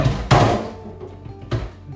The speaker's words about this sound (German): Früchte, tiefgefrorene, kommen hier noch ein paar rein. Im zweiten Becher.